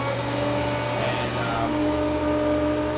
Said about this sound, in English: It's uh, this is the most advanced, best vacuum pump in the industry right here.